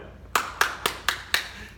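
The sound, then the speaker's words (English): Five sharp, crisp hand claps for Donald Trump in a steady, even rhythm, each a bright snap that fades quickly, with no talking in between. “We understand Donald Trump and we're clapping for him.”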